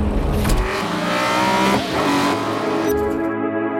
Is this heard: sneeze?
no